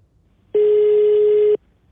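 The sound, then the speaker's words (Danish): A single steady telephone ringing tone sounds for about one second, loud, with silence before and after and no voices; it is a phone call being made to a prison. “Så jeg beslutter mig for at ringe til fængslet, for at se, om jeg alligevel kan få noget information ud af det.”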